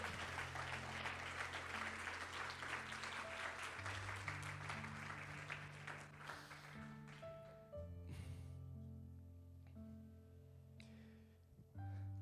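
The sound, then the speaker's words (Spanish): An audience breaks into loud, sustained applause for Jesus over steady organ or keyboard chords, the clapping thinning out after several seconds as the music continues. “Si tú lo crees, dale un aplauso fuerte a Jesús.”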